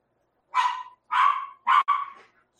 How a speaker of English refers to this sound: Is that your dog? yeah, my wife just got home and yeah, uh, yeah, making his presence making his presence known.